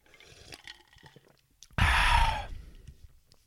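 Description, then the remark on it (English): Someone drinks water: faint quiet sips and swallows, then a sudden loud, breathy satisfied exhale lasting under a second before it fades. No talking. “So let me get some water.”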